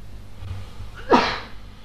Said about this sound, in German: Immer wenn du niest, muss ich einen Schluck trinken.